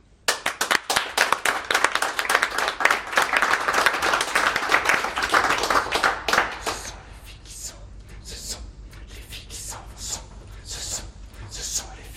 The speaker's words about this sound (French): On les applaudit.